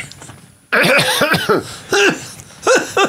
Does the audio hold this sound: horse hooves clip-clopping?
no